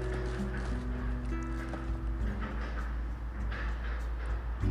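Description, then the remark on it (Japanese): Building demolition work in the surroundings fills the background with a steady, heavy mechanical rumble, low droning tones and irregular clattering knocks, continuing without pause and with no one speaking. “え本日、えー、少し周囲が、えー、解体工事のためうるさいのですが何卒ご了承ください”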